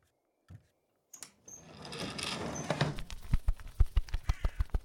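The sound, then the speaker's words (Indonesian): A quick series of sharp, hollow knocks on a wooden window at night, about eight evenly spaced raps growing louder, after a stretch of rustling, shuffling noise. “Rati mendengar ketukan di jendela kayunya saat malam hari.”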